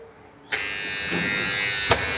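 A door buzzer at a back-of-house door of the zoo in Duisburg, 2016, sounds with a sudden, steady electric drone that holds for nearly two seconds, loud, with a sharp click near the end and no one speaking.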